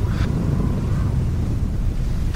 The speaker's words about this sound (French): Et après, euh, une fois le chalut remonté, bah, le bateau se met à la cape. Ils remettent pas le chalut à l'eau. La tempête pousse les marins au silence. Et c'est à ce moment-là qu'on entend vraiment bah, les éléments.